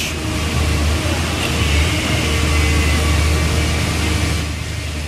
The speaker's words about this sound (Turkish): Kuş sesi yok, iş makinesi sesi var. Kuş sesi yok, kırma sesleri var.